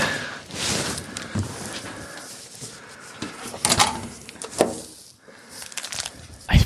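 A hotel room door being unlocked with a key card: rustling and handling noises, then a series of sharp clicks and clunks as the lock releases and the door swings open, with no voices.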